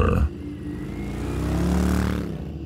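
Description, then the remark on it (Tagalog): A motorcycle engine revs up with a rising, throaty whine and pulls away quickly, the pitch climbing as it accelerates, loud with no voices. “Pero dahil sa kilabot ko nang maisip na hindi pala kamay ng magandang babaeng ang kasko ang hinawakan ko, ura-urada akong nagpatakbo ng motor.”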